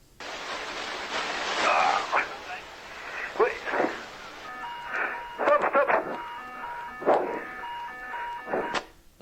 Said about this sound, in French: entend les alarmes, hein, distinctement. Les alarmes, on entend les souffles.